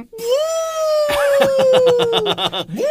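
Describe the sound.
A person imitates a wolf howl with one long, sustained vocal tone that sags gradually in pitch, while choppy bursts of laughter break in over the second half before the howl rises again.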